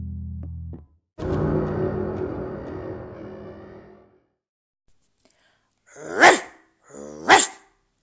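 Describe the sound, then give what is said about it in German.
A large American bulldog named Warrior gives two loud, deep barks about a second apart, after a few seconds of low rumbling noise and a brief pause. “Hier bellt Warrior, der stärkste Hund der Welt.”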